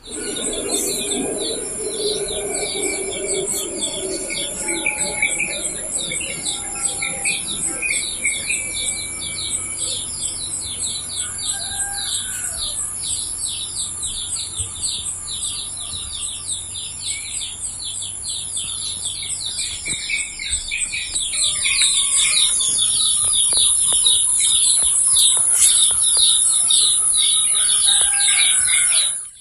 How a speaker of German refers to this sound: Das klingt schon sehr idyllisch. Man hört Vögel, einen Hahn